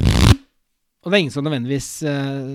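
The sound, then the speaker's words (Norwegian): A quick riffle through a deck of playing cards, done as a test for marked cards before playing, a dense fluttering burst lasting only a moment, followed by a short silence and then someone talking. “Hvis jeg skal spille, så tar jeg kortene, og så rifler jeg gjennom kortene på den måten.”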